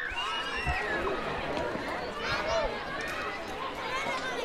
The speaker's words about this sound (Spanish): Hoy tengo jaleo alrededor. Este es el sonido de niñas, niños, madres y padres a las puertas de un colegio del distrito de Arganzuela de Madrid.